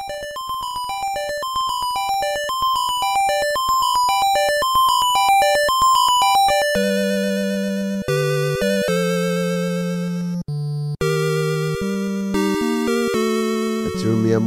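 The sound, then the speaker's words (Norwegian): Bright 8-bit video game music plays on its own: a bouncy square-wave melody in quick stepping notes, joined halfway through by a buzzy bass line, with a couple of brief dropouts near the end. “La oss høre litt musikk fra Selda når vi først snakker om det.”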